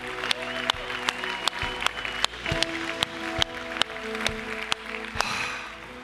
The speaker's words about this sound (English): Let's give everybody a big round of applause.